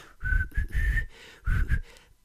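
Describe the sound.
A clear whistled tune of a few sustained notes in a slow, gentle melodic phrase, the intro of a rock ballad, with a brief pause midway and no talking over it.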